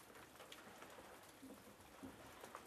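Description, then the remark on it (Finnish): Steady rain falls on the sheltered outdoor terrace of a sauna cabin at Lake Saimaa in misty weather, a dense, even patter of drops with a few sharper taps, continuous and fairly soft with no voices. “Tää sataa vettä”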